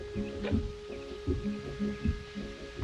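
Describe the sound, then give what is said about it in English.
A low, throbbing synthesizer pulse from a film score, the first sound heard in a Gary Cooper movie, beats in a slow, steady rhythm like a heartbeat, with a faint sustained hum behind it and no voices. “it's either a heartbeat or a clip clop or the ticking clock we'll talk about as a recurring element in the score here”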